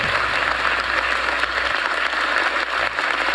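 An audience applauds steadily, a dense, even wash of many hands clapping at once that stays loud and constant without pause and with no voices over it.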